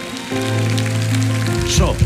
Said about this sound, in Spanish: ¿Me entendieron todos? Un aplauso al Señor.